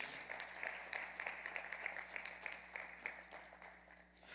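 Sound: audience applauding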